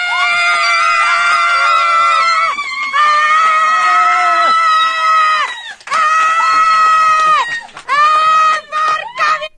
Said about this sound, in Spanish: Laura Pacini ganó el Globo de Oro, pero ustedes escuchen cómo gritó Laura Pacini cuando ganó. Ahí les va.